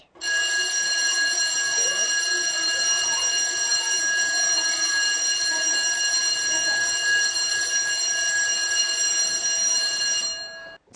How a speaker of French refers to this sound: C'était le son de la sonnerie de l'école à la fin de la journée.